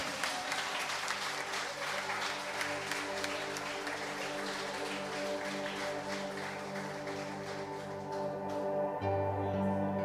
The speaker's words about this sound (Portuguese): Aplauda aquilo que ele é nessa noite. Amém.